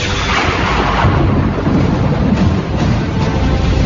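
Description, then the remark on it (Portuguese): Loud, continuous thunder rumbles through a storm with lightning as a boat nearly capsizes, a deep rolling roar with heavy low-end swells and a steady hiss of rain or wind layered on top, no voices present. “Todos entram em desespero total diante da tempestade, diante dos trovões, diante dos relâmpagos e raios.”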